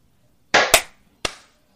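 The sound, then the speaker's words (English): Three sharp, loud hand claps with no talking, made as a slate to sync audio across recordings: two in quick succession, then a third after a brief pause, each a crisp snap that dies away fast. “So can we uh, just yeah, do one sure. more slate? Okay, so can we clap at uh oh god, okay, 20?”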